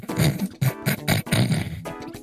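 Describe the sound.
A man growls and grumbles like a bear in several rough, throaty bursts, fairly loud, with short pauses between them.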